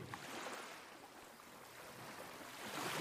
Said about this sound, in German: Stell dir vor, es ist Nacht am Strand. Und alles, was du hören kannst, ist das Geräusch der Wellen.